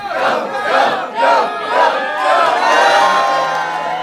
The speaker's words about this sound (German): Zum Beispiel einen Schwenk über die Golden Gate Bridge. Dieser Schwenk ist so aufreizend langsam, dass das Publikum ihn anfeuert.